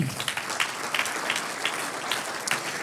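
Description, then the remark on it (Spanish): A group claps steadily in a dense, sustained round of applause offered to the Lord during a sermon, many hands overlapping into a bright, crackling wash with no talking over it. “Un aplauso al Señor.”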